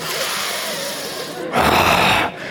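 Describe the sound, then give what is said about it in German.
A voice imitates the heavy panting of people carrying bags up to the fourth floor: a steady airy huff followed by one louder, harsher breath pushed out. “Die sind zwar am Schnaufen wie die Weltmeister.”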